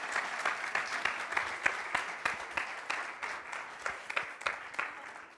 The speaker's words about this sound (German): Und ich würde sagen, ihr habt alles richtig gemacht und das verdient einen fetten Applaus.